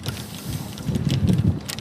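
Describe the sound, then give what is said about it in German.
Low, rumbling buffeting of wind against a microphone outdoors during an outdoor sport on a cold, windy day, swelling and easing in gusts, with faint airy hiss above; steady and fairly loud throughout, with no voices. “Und ich hoffe, dass die Mikrofone auch den Wind hier einigermaßen”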